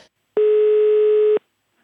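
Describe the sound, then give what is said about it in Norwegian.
A telephone ringback tone plays while a call is being placed to Anne B. Ragde: one steady, buzzy beep lasting about a second, fairly loud and clear, followed by silence, with no voices. “Vi ringte Anne B.”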